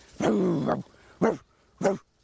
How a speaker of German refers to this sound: So, jetzt warten wir nur noch darauf, ob der Hund einen Laut gibt. Ja, mach dich mal richtig zum Affen. Die Haltungsnoten werden hier nicht vergeben. Gib laut, gib mal hier laut.